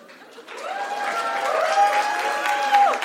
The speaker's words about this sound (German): Okay, der Schwabe klatscht, aber sonst.